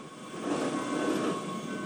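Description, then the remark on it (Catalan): A Wengernalp rack railway train departing Wengen for Lauterbrunnen rumbles steadily, a broad mechanical roar with a faint high whine running through it, holding at a fairly even loudness for a couple of seconds with no voices. “Aquest és el, aquest és el Wengen Alban, que diguéssim marxa de Wengen i va fins a l'Auterbrunnen.”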